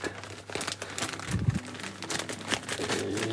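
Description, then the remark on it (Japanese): A double-layered plastic zipper freezer bag crinkles as it is handled and the air is pressed out, a continuous busy rustle of plastic with sharper crackles throughout, fairly loud and with no talking. “えー、と今ジッパー袋二重にして、えー、空気を抜いてでこのまま冷蔵庫の野菜室に入れます”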